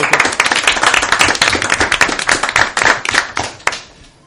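A crowd applauds with dense, overlapping hand claps that stay loud and steady before thinning out toward the end, with a few sharper individual claps standing out.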